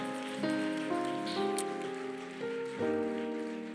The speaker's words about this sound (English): Clap for them. Clap for them. Clap for them. Clap for them.